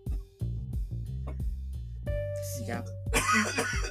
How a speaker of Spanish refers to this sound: Está tosiendo